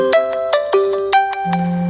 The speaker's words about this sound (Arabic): طيب معلش هو حد بيرن عليا مش فاهم في ايه